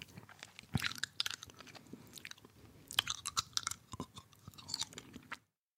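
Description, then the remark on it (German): Wet smacking and chewing of candy in an intimate ASMR style, with irregular crunchy clicks and mouth sounds repeating for several seconds, no talking. “Nämlich so schmatzende Geräusche.”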